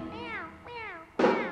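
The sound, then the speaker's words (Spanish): A voice imitates a kitten's meow in a Spanish-language children's farm song, two high, wavering mews followed by a louder, brighter third cry, sung in a playful style. “El gatito hace así.”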